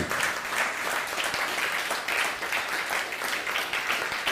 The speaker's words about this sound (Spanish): Pues sean bienvenidos todos, un fuerte aplauso.